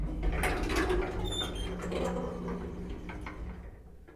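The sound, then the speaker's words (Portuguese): A low mechanical rumble with rattling and a brief high-pitched squeal, like an elevator halting after descending far below the underground garages and its door sliding open, then tapering off into quiet. “Até que uma hora ele parou, e quando a porta se abriu”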